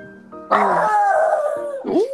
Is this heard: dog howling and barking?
yes